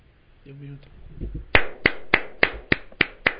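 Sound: hand clapping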